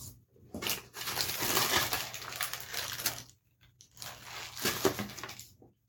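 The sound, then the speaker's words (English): Crunchy chewing of plain mini corn dog nuggets in two bursts, a few seconds of wet, crackling bites with a short pause between them, loud with no talking. “I'm a mustard guy with my hot dogs, but I'm gonna go ahead and try these just plain.”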